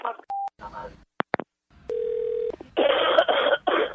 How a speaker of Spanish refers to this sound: ¿Qué es lo que le pasa, doña, que yo la escuché tosiendo y eso?